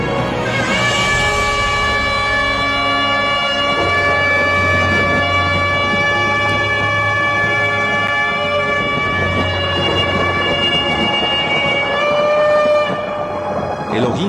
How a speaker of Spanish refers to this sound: Así al tercer día el Eterno descendió al monte en fuego. Truenos y relámpagos había. Y un sonido de shofar muy fuerte que iba en aumento.